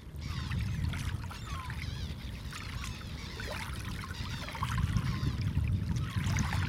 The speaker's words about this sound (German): Durch die Priele läuft das Wattenmeer überraschend schnell wieder voll. Dort, wo wir eben noch gelaufen sind, plätschern schon wieder die Wellen. Die Flut ist da, überschwemmt die Wohnröhren der Krebse und die Muschelbänke.